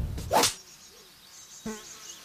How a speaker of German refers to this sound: Oh, toll, die Wildbienen kommen zurück.